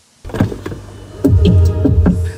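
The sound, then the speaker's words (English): A car door is opened, with a low mechanical hum followed by several sharp latch clicks and clunks in quick succession. No one speaks. “Stop opening the fucking door.”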